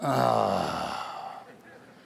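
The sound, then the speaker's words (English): A single drawn-out vocal groan of disappointment, loud, sliding downward in pitch and trailing off over about two seconds, voiced as an imitation by one person. “And groaning sounds like this.”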